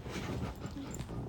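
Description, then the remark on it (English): A dog whimpers and whines softly in the background, a low, continuous crying sound lasting the whole moment, fairly quiet. “So if you hear him in the background humming and crying and making love sounds, because he has a lot of love and”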